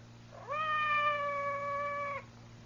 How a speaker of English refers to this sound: Outside the door. It sounded like Madame's cat, Francois.